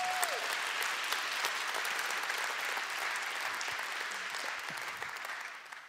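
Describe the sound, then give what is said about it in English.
An audience at a church applauds in a thick, steady wash of overlapping claps that holds for several seconds, then eases off slightly toward the end, with no voices over it. “I hope you're clapping for yourself because I couldn't have done that if I wasn't part of a church where I could actually have the ability to say, I need some help.”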